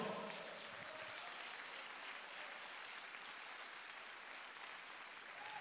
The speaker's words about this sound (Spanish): Gloria al Señor, dele fuerte aplauso al Señor.